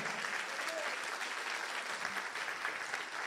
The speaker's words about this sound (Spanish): ¿Cuántos le dan un aplauso al Espíritu Santo?